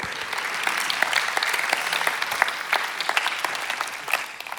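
Steady applause from an audience thanking a person for his statement, many hands clapping in a dense, continuous patter at a fairly loud level, sustained for a few seconds without voices.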